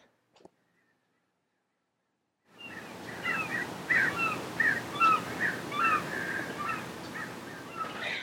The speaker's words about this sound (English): Do you guys hear the birds outside?